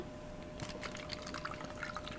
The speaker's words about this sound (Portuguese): Peraí, estou me servindo de água aqui.